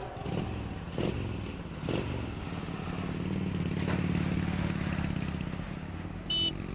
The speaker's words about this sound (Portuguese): Esse som que você está ouvindo eu gravei na Avenida Conselheiro Aguiar, em Recife, e eu fiquei um tempo ali em frente ao mercado de Boa Viagem, do outro lado da rua, né?